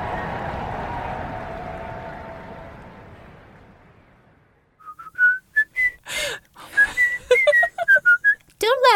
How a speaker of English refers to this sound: at me whistling in a jaunty fashion. I wish I could whistle as well.